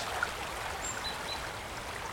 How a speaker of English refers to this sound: So this, this is the River Usk, one of my favourite places to come and walk. A favourite place just to find a bit of peace and quiet. And even when the river's full and boiling like it is today, it's still a mesmeric place to come